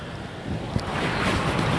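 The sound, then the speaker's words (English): A steady, broad watery hiss that swells slightly toward the end as passing cars' tires rush and splash through puddles on a road wet from light rain. A brief splash sounds partway through, and no one speaks. “And when the cars pass by the puddle, sometimes they splash me.”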